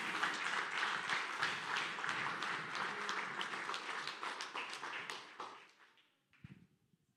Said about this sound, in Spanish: Dele una ofrenda de palmas a nuestro Señor, hermano.